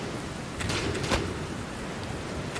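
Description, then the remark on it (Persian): Steady, dense heavy rainfall hisses continuously across the whole stretch, with a few brief louder splashes in the middle; no voices, just an even wash of rain soaking soldiers' gunpowder, weapons and uniforms. “بارون شدید همه بارودها رو خیس کرده دیگه نه اسلحه ها کار میکنن نه توپ جنگی لباس های نظامی همگی خیس شدن و حرکت براشون خیلی سخت شده”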